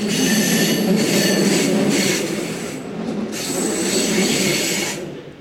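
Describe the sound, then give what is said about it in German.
A train rolls through a tight track curve in Cologne, its wheels letting out sustained, high-pitched metallic squeals over a steady rumble, the screeching swelling and easing in waves, loud. “Der Kölner Gleisbogen ist eng, wie man hört.”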